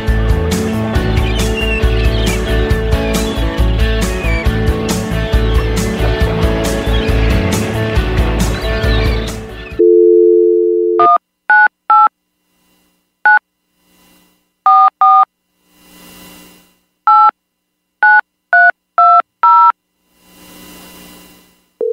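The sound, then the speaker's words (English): Loud music plays, then cuts to a brief dial tone followed by a series of touch-tone keypad beeps, dialed in quick irregular bursts, each beep clear, as someone phones a man to see if he answers. “see if he answers.”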